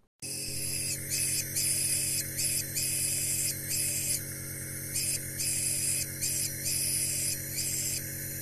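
A short melody played on an inhaler, a cover of a fragment of the melody from the series The Mandalorian: breathy, hissing whistle tones start and stop in a rhythmic pattern over a steady low mechanical hum, with no one talking.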